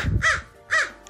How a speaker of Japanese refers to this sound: カラスが鳴いてますけど、外で撮っております、今日は。カリフォルニアの日を浴びながら、えー、撮っておりますけど